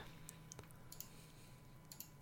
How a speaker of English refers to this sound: I'm, I'm it's, it's frantically like a, clicking here.